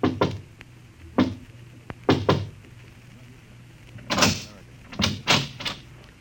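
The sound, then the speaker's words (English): A man knocks softly on a door: a few muted raps spaced irregularly, then a tighter cluster of knocks toward the end, over a low, steady background hum. “He pauses, looks behind him, then knocks quietly on a door.”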